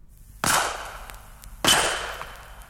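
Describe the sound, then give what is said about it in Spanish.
Two sharp gunshots fired by a hunter in the jungle ring out about a second apart, each a loud crack followed by a long echoing tail that fades slowly, with no voices present. “Un buen día se oyeron disparos.”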